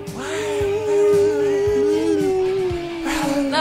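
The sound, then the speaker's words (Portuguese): A ghostly spirit sound effect: a long, wavering howl holds one steady mid pitch for several seconds, rising slightly before sliding lower, like an eerie wail, with faint low rumbling underneath and no talking. “Editar um negócio aqui pra escapa e põe um som do. som de espírito aqui no talo”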